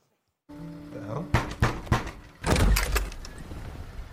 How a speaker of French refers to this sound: Et tout commence euh, lors d'un dîner en famille tout simple et tout, soudain, quelqu'un vient toquer à la porte.